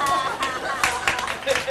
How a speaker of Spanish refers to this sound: ¿Qué es esto? ¿Una canción? Pues eh, no lo sé. ¿Qué me, enviáis? Son aplausos.